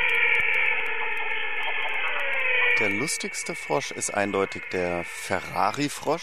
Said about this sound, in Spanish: La rana más graciosa es sin duda la rana de Ferrari, como la llama la población local en Bolivia, sobre todo cuando croa a coro, suena como si fuera un Ferrari o como si se estuviera viendo una carrera de Fórmula 1.